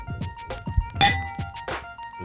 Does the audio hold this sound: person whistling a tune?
no